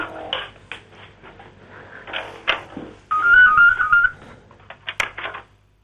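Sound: telephone ringing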